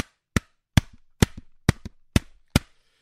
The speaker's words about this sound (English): Let me just knock my head against the wall here.